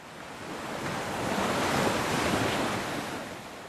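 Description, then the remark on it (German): Ocean waves break on a beach in a steady, broad wash of surf that swells louder in the middle and then recedes, with some wind noise and no voices. “Max Faulkner machte einen Strandspaziergang, genoss den beruhigenden Klang der Wellen.”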